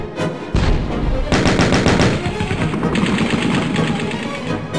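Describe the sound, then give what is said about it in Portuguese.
Rapid bursts of gunfire and machine-gun rattle echo from a distance, dense and continuous, from a battle around a besieged city where General Paulus's forces were encircled, with a low rumble underneath and no speech; the battle sounds begin to move away. “deixando suas forças prostradas, imponentes, enquanto os sons das batalhas começavam a se distanciar.”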